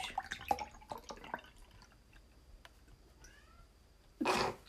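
A cat lets out one loud meow at the very end, after a stretch of quiet with scattered soft clicks and taps and a faint high chirp.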